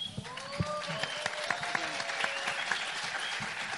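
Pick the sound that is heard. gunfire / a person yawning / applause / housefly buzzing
applause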